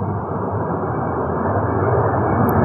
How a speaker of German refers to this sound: Jetzt fliegt hier gerade ein Flugzeug, während ich meinen Call to Action platzieren wollte. Wir warten noch, bis das weg ist.